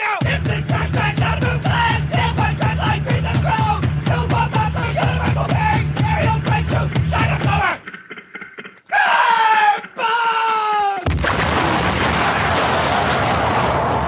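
Loud, distorted noise-rock with harsh screamed vocals over pounding drums, breaking off suddenly into shrill, sliding shrieks and then a dense wall of static-like noise.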